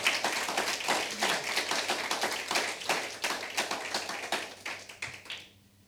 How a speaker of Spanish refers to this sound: Eso es, denle un aplauso al Señor.